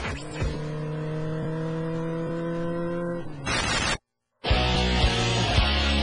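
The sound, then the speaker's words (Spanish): Motorcycle engines rev loudly and steadily as motorcycles arrive at a show, holding a droning pitch, then cut out briefly before roaring back with sharp throttle bursts. “Llegaron al show. Llegaron las motos.”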